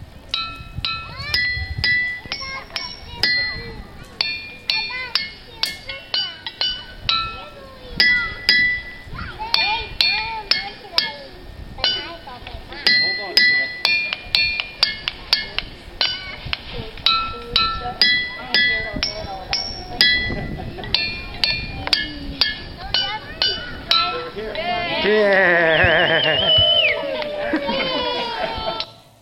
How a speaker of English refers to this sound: Now, before you go back to your seats, would you like to see and hear what those ringing rocks sound like?